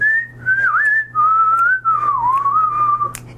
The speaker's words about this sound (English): Um, that was actually a pretty accurate whistle there. That, that sounded decent. Well, um, at least by compared uh, to my own whistling.